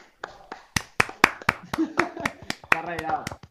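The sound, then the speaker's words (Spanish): A short burst of applause: a dozen or so sharp, evenly spaced hand claps, crisp, with voices and laughter rising underneath toward the end. “Tengo un aplauso para Carlos, por favor”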